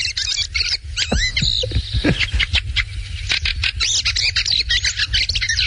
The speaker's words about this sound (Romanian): Cocoșar. Există o pasăre care se cheamă cocoșar